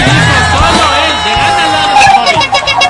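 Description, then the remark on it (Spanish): A loud crowd cheers and applauds, with whoops and shouting voices rising over a dense wash of noise that continues steadily throughout. “Un aplauso fuerte, por favor.”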